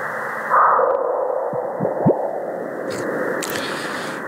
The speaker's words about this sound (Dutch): dit is het geluid van een meteorietinslag op Mars